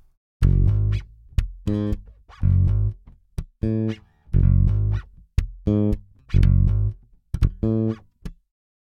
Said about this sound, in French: sur certains VST, c'est comme ça que ça s'appelle, on entend des bruits parasites, des petites choses rajoutées, des glissements de doigts